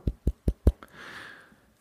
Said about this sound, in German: Aber schnell mal ein Holz klopfen, warte mal.